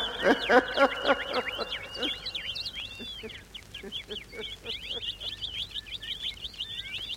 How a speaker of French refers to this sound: les oiseaux chantent. Mon Dieu, comme la nature est belle.